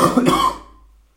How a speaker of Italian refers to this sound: scusate un po' di tosse